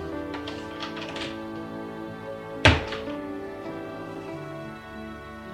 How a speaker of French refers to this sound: Un quart d'heure plus tard, il entend du bruit ça le rend heureux. La porte s'ouvre.